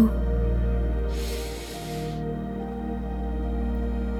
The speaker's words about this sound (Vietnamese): hít sâu